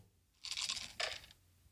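A quiet, tinny standard dice-rolling sound from a phone app: two quick rattling clatters in close succession, thin and faint, with no voices.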